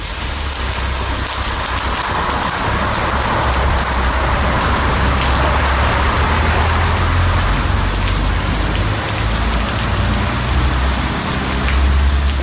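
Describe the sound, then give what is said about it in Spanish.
A broken irrigation sprinkler installed in a street planter on Vázquez Varela street sprays water like a geyser in a steady, loud hiss that sounds much like heavy rain, running unbroken throughout, with a faint low rumble underneath and no voices. “Este sonido no es de la lluvia ni tampoco una ducha, es un aspersor de regadío instalado en una jardinera de la calle Vázquez Varela que desde hace ya varios días está estropeado y, creando un auténtico geyser.”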